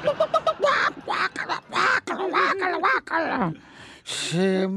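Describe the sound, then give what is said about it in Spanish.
A person imitates a clucking hen, starting with a quick run of short clucks, then carrying on in a squawky, talk-like string of hen noises and ending with a rising squeal. “Le voy a hablar español porque no hablan ustedes el idioma gallina.”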